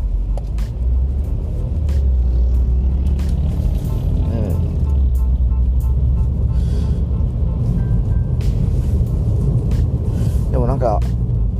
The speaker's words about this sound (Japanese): あの南側というかあの東側というかね街じゃない方を通ってるんでですねなんともね、えー、あれなんですけどまあ今日は火曜日なんでさほど車も多くない感じではあるんですけどね